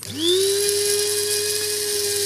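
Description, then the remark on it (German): A blade coffee grinder whirs up to speed and holds a steady, high, whining motor drone, grinding 100 grams of salt with a handful of daisies picked in the city park, plus a little lime zest, to make a flavoured salt, with a faint gritty rattle underneath; no one speaks. “habe ein bisschen Salz zugegeben und ein bisschen Limettenabrieb und stelle dadurch ein ganz wunderbares Salz her in unserer Kaffeeschlagmühle”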